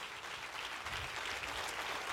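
An audience applauds, steady dense clapping from many hands sustained throughout with a bright, crackling texture and no voices.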